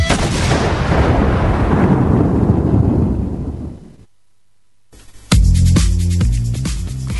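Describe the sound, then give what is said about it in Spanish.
A loud, dense applause and crowd-cheering effect, played to welcome a rugby guest, roars for about four seconds, fades into a brief silence, then upbeat music with a thumping beat kicks in. “Y ahora sí que se vengan esos aplausos, gritos y ovación para recibirlo a él,”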